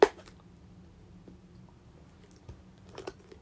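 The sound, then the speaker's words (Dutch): Someone takes a quiet sip of water, with a few soft mouth clicks and a gentle swallow spread over a few seconds of near silence. “Ik ga even een slokje water nemen.”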